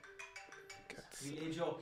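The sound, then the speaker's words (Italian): A mobile phone rings with a short, steady electronic melody of repeated tones, fairly quiet, before people start talking over it as the ringtone continues underneath. “cioè, aspetta, non è tutti hanno il telefono spento e solo io non ho, non ho il telefono spento.”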